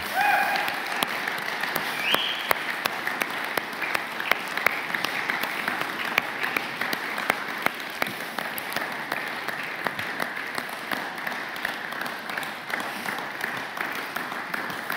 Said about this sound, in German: Ich weiß nicht, Jungs, seid ihr da? Wollt ihr mal den Mädchen einen Applaus geben, die dem Herrn dienen? Danke euch.